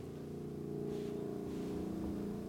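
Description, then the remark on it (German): A helicopter circles steadily overhead above Kalk, its low, humming engine noise continuous and fairly loud throughout, with no voices present. “Ja, der Hubschrauber, der kreist noch über Kalk.”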